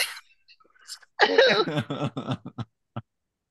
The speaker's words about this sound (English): I was trying to go past it because I've never made that sound off a cough, but I was like, "Hey, it's a fluke.